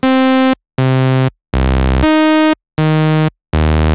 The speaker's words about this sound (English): If we now play our keyboard, we hear a harsh sawtooth waveform sound.